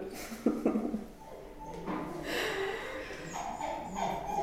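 A dog whines for attention in a run of high, drawn-out whimpers, with a short yelping burst near the start and rising, pleading tones toward the end.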